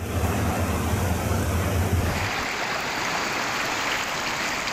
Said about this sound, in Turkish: Bolu Mengen'de dereler taştı.